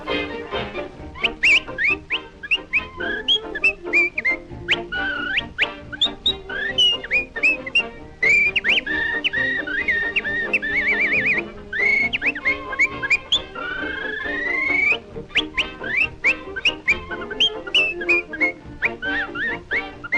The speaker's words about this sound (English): And he does this funny whistling thing that I just kind of cracked up I know.